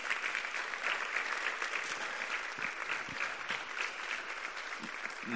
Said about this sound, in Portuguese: Uau! Um aplauso de gratidão a Deus.